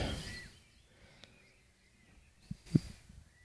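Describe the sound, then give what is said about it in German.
Faint birdsong outdoors on a sunny, mild day: thin, scattered chirps and warbles drift in the background, with a couple of soft thumps toward the end and no talking. “wirklich fast berauschenden Vogelkonzert.”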